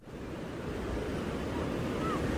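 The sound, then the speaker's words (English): Steady roar of ocean surf on the coast of Oregon at Haystack Rock, a dense continuous wash of breaking waves, with some wind buffeting the microphone and no talking. “I'm not sure if you can hear all the squawking and wailing of these birds over the sound of the ocean, but I am at Haystack Rock, which is a giant haystack looking rock uh, right on the edge of the”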